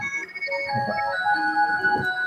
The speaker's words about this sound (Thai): อันนี้คือคือสัญญาณจะหมดเวลาครับผมอ๋อ เป็นโทรศัพท์เเรียกนาฬิกาปลุก